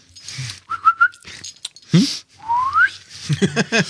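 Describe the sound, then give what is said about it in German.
A person whistles: a few quick chirpy notes, then a long upward-sliding whistle, broken up by short breathy vocal sounds and a brief murmur. “Und dann habe ich überlegt, einer, der muss dann immer in den Sätzen so pfeifen.”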